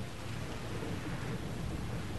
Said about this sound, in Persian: میشنویم اینجا بارونه